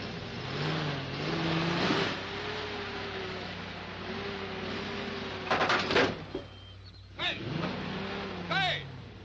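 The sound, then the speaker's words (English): A car engine revs up and down in repeated surges as the driver tries to maneuver it out of a parking spot, its pitch rising and falling, with a couple of sharp clunks partway through and brief voices near the end. “I'm trying to unpark my car.”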